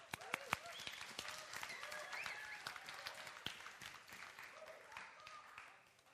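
An audience breaks into steady applause, a dense patter of many hands clapping with a few sharper claps standing out, holding for several seconds before gradually thinning and fading.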